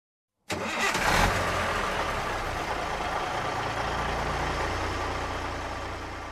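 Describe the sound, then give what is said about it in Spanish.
A bus engine starts with a sudden loud roar after a brief silence, then settles into a steady, deep rumbling idle that continues without any voices, under an intense sun. “Ya en bus, el camino se hace eterno bajo el intenso sol.”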